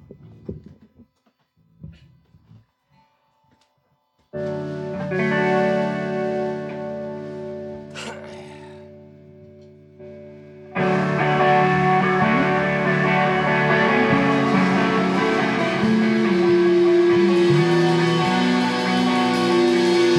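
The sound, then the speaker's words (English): A few soft knocks, then a sustained droning chord swells in before a full live band crashes in loudly partway through, playing a dense, driving song with no talking. “Um, well, guys, I'd love to hear another song.”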